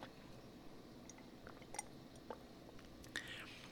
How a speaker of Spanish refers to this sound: Déjame tomar un sorbito de té.